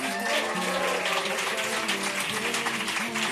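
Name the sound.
applause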